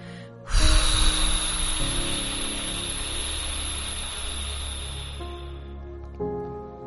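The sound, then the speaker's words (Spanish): A strong, forceful exhale released after holding the breath during a breathing exercise, rushing out through the nose or mouth, a long breathy burst lasting several seconds, loud, over a soft steady hum in the background. “Retenemos y sacamos.”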